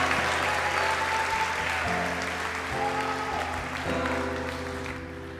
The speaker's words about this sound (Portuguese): fica de pé, aplauda o Senhor.